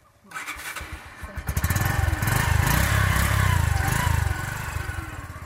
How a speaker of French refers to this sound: Et puis, élément très important, une moto.